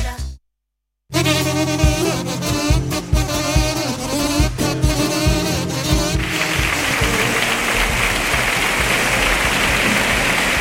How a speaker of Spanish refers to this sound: Es el sonido que recogíamos eh, anoche en el Teatro Falla dedicado a esa ovación del público a nuestro compañero Juan Manzorro.